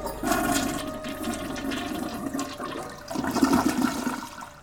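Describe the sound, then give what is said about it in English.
A toilet flushes with a loud, sustained rushing gurgle of water that briefly eases, then surges again before draining away. No voices are heard. “Lucas flushed the toilet and slammed down the seat.”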